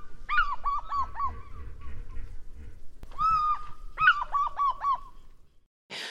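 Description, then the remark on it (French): An eagle's loud, ringing call, a quick series of yelping notes, pauses, then comes back twice more. It's clear, with no talking. “Et il a un cri qui est vraiment reconnaissable entre tous les autres.”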